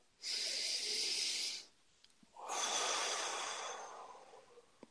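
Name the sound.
deep breath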